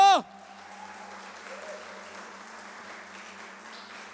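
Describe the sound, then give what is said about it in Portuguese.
A large audience claps and applauds Jesus in a steady, dense wash of sound for several seconds, just after a brief vocal shout at the very start. “E se você crê nisso, aplauda Jesus bem alto.”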